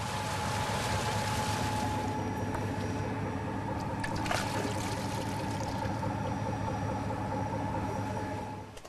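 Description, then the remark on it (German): Dirty, sandy water gushes steadily out of a hose during the regeneration of a well, a continuous loud rushing pour over a low mechanical hum, with no one speaking. “Das schmutzige Wasser fließt durch einen Schlauch heraus.”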